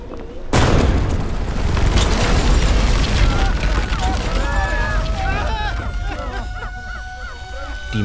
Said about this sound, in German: mächtigen Glasfenster der Fertigungshalle wurden von einer Druckwelle aus dem Rahmen gesprengt. Ein Feuerball breitete sich im Zentrum des Backsteingebäudes aus.